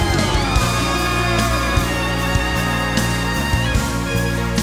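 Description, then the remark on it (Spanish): An audience at a Spanish-language church service claps and cheers loudly as applause for Jesus, with whoops and shouts rising over sustained keyboard or organ chords, going on steadily for several seconds. “Aleluya, dale fuerte ese aplauso a Jesús, mío.”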